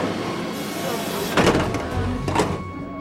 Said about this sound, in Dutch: Ja, en we gaan nu proberen ons hier in de metro te wringen.